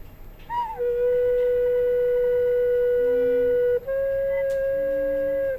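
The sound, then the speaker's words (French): An unfinished recorder pipe, its finger holes only just roughed out, is blown while checked against a tuner, sliding up into a steady, clear whistling note, currently a B, held about three seconds, then briefly breaking off and resuming slightly higher until the end. No one talks. “Il va falloir euh, pour faire monter une note, là je vais prendre un, bec et je vais prendre un accordeur. Voilà. Alors, je commence à souffler.”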